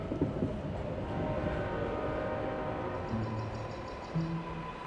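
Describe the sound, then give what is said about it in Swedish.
A train rumbles steadily, with brief tonal squeals near the end, like brakes as it pulls into a station. No voices are heard. “Stentrollen klev av tåget och möttes av en underbar syn.”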